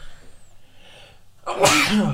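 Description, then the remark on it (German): A single loud sneeze bursts out after a second or so of near silence, a sharp breathy explosion that trails off quickly. “Gesundheit, mein Bestes. Es tut mir leid.”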